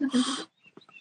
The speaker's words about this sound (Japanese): これ、これ、これな、な、何の声なんですか鳥の、あ、これ、ね、鳥の鳴き声をちょっと続けてるんですよ、この番組の初回から。